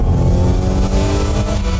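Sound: SUV engine revving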